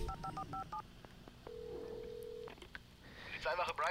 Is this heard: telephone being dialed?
yes